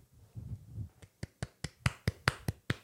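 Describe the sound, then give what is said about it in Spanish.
A single person applauds himself, clapping about eight or nine times in a steady, slightly quickening rhythm, each clap a sharp, crisp slap, following a brief low murmur at the start. “yo solito me, aplaudo a mí mismo, me, me tiro confeti a mí mismo.”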